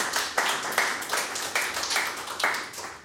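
A brief round of applause: steady, fairly even clapping with sharp accents recurring about every half second over a dense bed of hand claps, moderately loud, with no voices.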